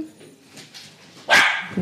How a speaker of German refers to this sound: Oh. Hallo, noch mehr Hunde.